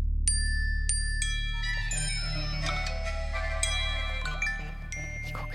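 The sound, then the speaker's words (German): Many short electronic notification pings chime together in a cluttered, overlapping flurry at different pitches as several people's phones and devices receive the same message at the same moment, over a low steady background rumble. “Dann pingen unsere Geräte. Alle gleichzeitig.”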